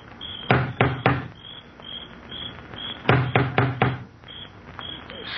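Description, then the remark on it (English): A huge knocker on the front door of a crumbling old mansion, lifted by an elderly man, bangs loudly, three booming blows, a pause, then four more, while crickets chirp steadily in the background. “He looks about uneasily, then lifts the huge knocker on the door.”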